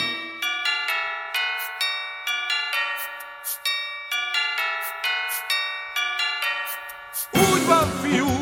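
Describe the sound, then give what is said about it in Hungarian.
A tinkling melody of chiming bells rings out in quick succession, bright and clear like a small carillon, before a brief rushing noise cuts in at the end. “Nem láttam még ilyen formagépet, és nem zúg, és nem pöfög, de tömérdek harangjátékot hallani benne”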